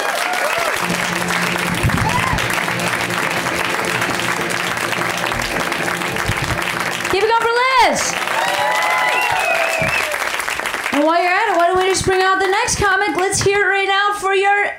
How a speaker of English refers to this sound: Next comic. Clapping already happening. Keep it going